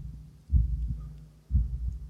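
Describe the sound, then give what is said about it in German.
A muffled, low heartbeat heard in the ear thumps in a steady lub-dub rhythm, two beats about a second apart, deep with a faint hum underneath and no voices. “Als ich dann eines Tages mitten auf der Hauptstraße entlang radle und mir nebenbei die dauerhaft geliehenen Wurstbrötchen schmecken lasse, bemerke ich, dass die Herztöne in meinem Ohr lauter werden.”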